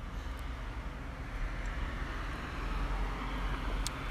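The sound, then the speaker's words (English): A steady roar of two cars driving by, a broad rushing rumble that stays fairly loud throughout, with no one speaking. “While two cars drive by.”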